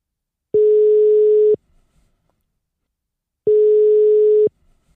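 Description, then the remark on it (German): Two long, steady electronic tones ring out about three seconds apart, each lasting around a second, the ringback of an outgoing phone call to a guest, waiting for him to pick up, with silence between. “Und den rufe ich jetzt einfach mal an.”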